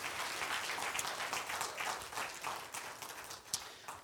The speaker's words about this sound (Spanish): Un aplauso fuerte al Señor, déselo fuerte al Señor.